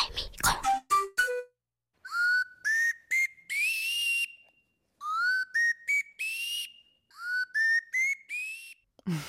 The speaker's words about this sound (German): der spielt auf einem Pömpel. Also das ist so eine Art Klostampfer äh, wenn da mal was verstopft ist.